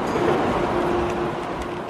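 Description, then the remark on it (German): A steady mechanical drone of an escalator descending into a subway station, with a low sustained whine over a dense, rumbling station ambience. No one speaks. “Okay, wir sind jetzt auf der Rolltreppe und fahren runter, um in die U-Bahn zu kommen.”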